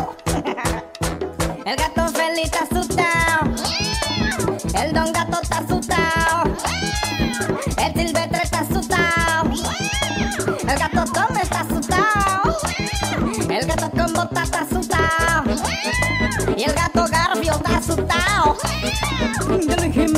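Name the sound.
cat meowing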